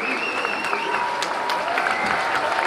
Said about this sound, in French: Acclamé comme une rockstar, François Hollande est assailli de demandes de selfies par des étudiants qui n'ont qu'un vague souvenir de son quinquennat.